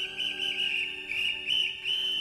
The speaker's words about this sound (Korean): 아침 저녁으로 귀상하라는 노무원의 호루라기 소리, 일 나가라고 소리소리 질러대는 노무원.